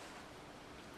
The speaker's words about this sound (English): the wind is blowing pretty hard right now it wasn't blowing too hard when I ran